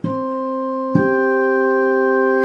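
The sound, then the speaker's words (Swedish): Two sustained instrument tones played one after the other, forming a perfect fifth; the first note holds for about a second, then a higher note enters and rings steadily to the end. No talking. “vad är en kvint? Hur låter en kvint? Ja, den låter så här.”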